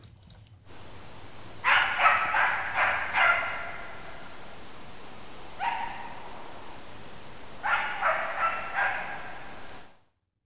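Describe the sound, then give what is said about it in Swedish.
Short, sharp barks from a wild animal, recorded by a wildlife trail camera, come in clusters: a quick run of about five, a lone bark, then another run of four, over a faint steady hiss with no talking. “Vi ska ta och lyssna på det här skallet och, och lyssna riktigt hur det lät.”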